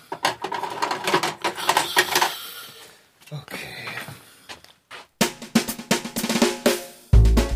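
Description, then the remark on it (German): Busy metallic clicking and rattling of a screwdriver working on bicycles, coming in dense bursts with short pauses, fairly loud, ending on a heavier thud. “Zuerst die Fahrräder. Ja. Genau. Äh, wo ist denn das Werkzeug? Ah, Schraubendreher.”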